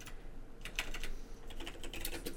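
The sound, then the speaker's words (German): Rapid clicking of someone typing on a computer keyboard, a quick irregular run of keystrokes with no talking over it. “einfach Victoria How Match Mother eingeben, dann findest du sie.”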